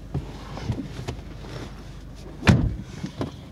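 The doors of the Henri Barbus middle school (collège) opening with a few soft clicks and knocks, then one louder heavy clunk partway through, against a low background rumble with no one speaking.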